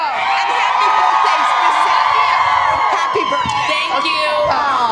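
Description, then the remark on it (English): A studio crowd cheers loudly and steadily, a dense wash of whoops, shouts and high-pitched yells with no pauses, many voices overlapping throughout. “What a crowd. This is the best crowd, y'all.”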